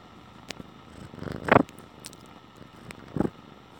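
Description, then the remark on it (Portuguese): A house cat, Dona Neve, a new cat at home, purrs right up against a mobile phone microphone, a low rumbling buzz that swells in two stronger bursts over a soft continuous hum, with no voices. “Essa é a Dona Neve, uma nova gata que tá aqui em casa, queridíssima, ao lado da Dona Páprica e ao meu lado.”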